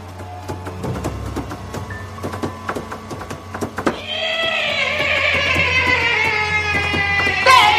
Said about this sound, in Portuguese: Maldito cavalo fantasma!